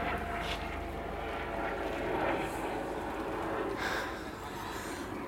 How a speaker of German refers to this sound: wir wurden gerade hier von einem Hubschrauber gestört, eine Frechheit.